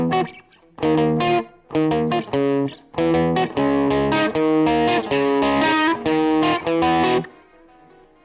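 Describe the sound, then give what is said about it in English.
Two distorted electric guitar riffs play together, one layered underneath and a bit loud, in choppy bursts of thick, buzzy chords with short gaps between phrases and no talking. “So again, it's two riffs, okay? And I know the underneath riff was a little loud.”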